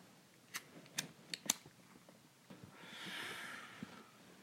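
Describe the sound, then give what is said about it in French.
A lighter clicks four quick times as a cannabis joint is lit, then a soft, breathy hiss of a drag being pulled in for about a second. “Donc, j'allume.”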